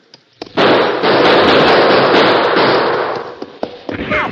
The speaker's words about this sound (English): Then one of the horses whinnied, which was a signal for them to open fire into the cave entrance.